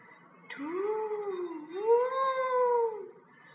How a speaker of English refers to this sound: No, now I can hear. I am sure it's a hoot. Look, it's an owl. Can we set it free?